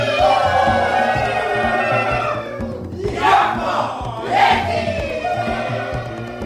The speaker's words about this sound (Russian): Белый слуга, ты слышишь? Это боевой клич Семенолов. Запомни его получше.